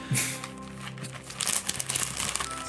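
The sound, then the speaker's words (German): Gift wrapping paper crinkles and rustles as a present is unwrapped at the microphone, ASMR-style, a loud, steady stream of crisp crackling with irregular bursts and no voices over it. “Ja, da hören die jetzt aber wirklich, dass ich auch was eingepackt habe.”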